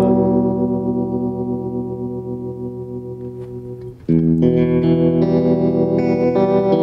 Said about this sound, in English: Here's the vibrato, uh, no vibrato, and then here's just a little subtle. No, I, I probably went too subtle on that. that was my preset.